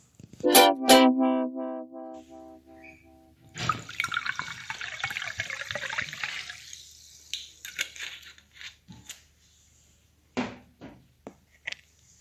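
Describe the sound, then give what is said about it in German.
Hot water pours into a glass for a meal being made, in a steady, hissing stream for a few seconds, followed by scattered drips and light clinks. A brief ringing tone sounds at the start, and no one speaks. “Jetzt wollte ich gerade, die Gurke in das Glas mit dem heißen Wasser tun.”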